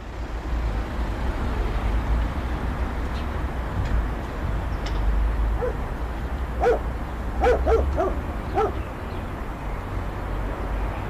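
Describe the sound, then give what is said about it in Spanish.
Dogs bark in a short cluster of yelps partway through, carried over a steady wash of wind and faint city hum in Buenos Aires, where traffic and construction noise have stopped during the pandemic. No one speaks. “En mi casa lo que más se escucha es viento, ladridos de perros, música de algún departamento y lo demás bastante silencioso.”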